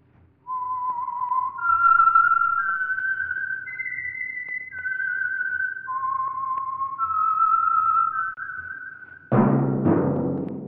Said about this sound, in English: That whistle is your signal for the Signal Oil Program the Whistler.